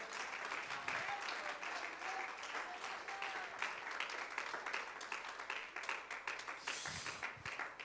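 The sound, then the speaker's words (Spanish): An audience applauds the presence of God, a steady, dense crackle of many hands clapping for several seconds, with faint voices and cheers mixed underneath. “Puede aplaudir la presencia de Dios con más corazón en esta hora.”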